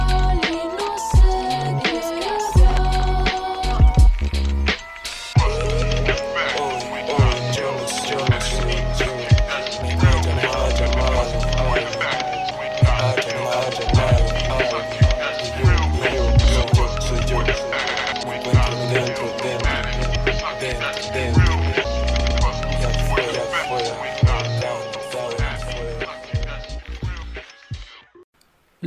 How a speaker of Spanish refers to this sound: dos artistas mexicanos que se dedican al la hip hop ya desde hace mucho tiempo.